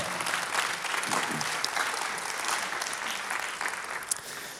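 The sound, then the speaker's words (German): An audience claps steadily for several seconds to thank a woman for telling her story, a dense, even patter of many hands with no pauses, fairly loud throughout and easing slightly toward the end. “Applaus für unsere”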